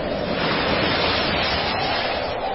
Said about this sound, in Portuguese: De repente, começou a soprar um vento muito forte e as ondas arrebentavam com tanta força em cima do barco que ele já estava ficando cheio de água.